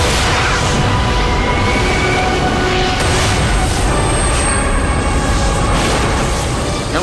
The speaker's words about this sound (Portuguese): foi uma explosão. Uma explosão envolve reações químicas, mas não havia ainda reações químicas, pois nem elementos químicos haviam ainda. Em explosões, a reação acontece num tempo muito curto, mas a própria noção do tempo não fazia sentido.